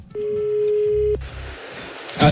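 A telephone line rings with one long, steady electronic tone lasting about a second as a call is placed to Hervé Renard, followed by a soft hiss of an open line and a brief click at the end.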